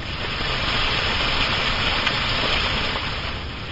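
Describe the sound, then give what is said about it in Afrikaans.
Steady, dense patter of raindrops drumming on a house roof, a continuous hissing wash of tiny impacts that stays fairly loud and even throughout, with no voices. “Dit klink net soos reendruppels wat op die huis se dak val.”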